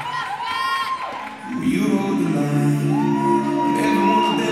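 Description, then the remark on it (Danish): An audience cheers and whoops loudly as a performer comes in, a dense wash of many voices that dips briefly after the first second, then swells again and stays strong to the end. “Men der kunne man også høre, da han kom ind. Altså, publikum var med ham.”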